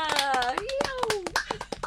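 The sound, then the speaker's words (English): A short burst of applause after the grand finale of a piece: quick, uneven handclaps, fairly loud and sharp, with a voice sounding over the clapping throughout. “Let's have a let's have a round of applause.”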